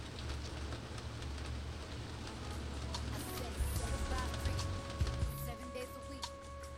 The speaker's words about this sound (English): yeah, the rain's coming in for sure.